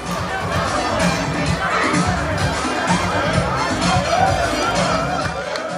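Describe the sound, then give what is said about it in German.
A large crowd roars, cheers and applauds continuously as Sapeurs, dandies dressed in European brands like Gucci and Armani, some with walking sticks and hats, parade down a sand street like a catwalk; a dense, steady wash of many voices with shouts rising above it and a clattering layer of clapping. “wie Dandys kommen die daher, manchmal auch mit Spazierstock, mit Hut und gehen da die Sandstraße runter, als ob das ein Catwalk in Paris wäre und die Leute applaudieren und johlen.”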